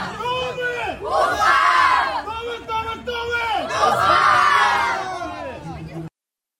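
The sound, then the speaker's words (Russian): Loud, dense crowd noise from the Match Day fan zone at a stadium before a football match, where fans carry Russian flags and balls with the Ufa emblem: many voices shouting and cheering at once, swelling in two big surges of chanting and yells, with no pauses until it cuts off. “Э, друзья, это была зона Матч Day.”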